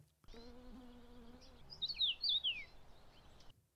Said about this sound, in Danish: silkehander, når de sidder og snakker der, og har det deres hyggelige snak sammen. Det, og mm. de snakker jo rigtig meget sammen. Det er mm. bare sådan en, en, en plapren der.